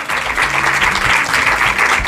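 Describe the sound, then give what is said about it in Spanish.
Steady applause from an audience at the Bioparc after Rubén Amón is greeted, the third ovation of the day: a dense crackle of many hands clapping at a fairly loud, even level for about two seconds, with no talking over it. “Correcto, un aplauso.”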